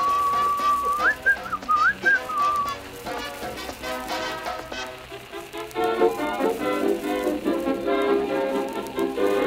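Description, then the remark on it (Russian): A short whistled phrase with rising and falling pitch swoops rings out clearly for a few seconds over a steady hissing, rain-like wash that continues after the whistling stops. “И вы выигрываете свист.”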